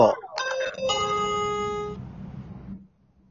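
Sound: doorbell chime sound effect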